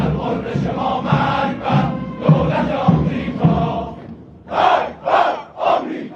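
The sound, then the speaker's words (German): Hundreds of Iranian army officers at a military parade in October 2019, attended by Ali Khamenei, chant loudly in unison 'Death, death, Israel', a steady rhythmic stream of voices that ends with three forceful shouted syllables, evenly spaced. “Tod, Tod, Israel, rufen sie im Chor.”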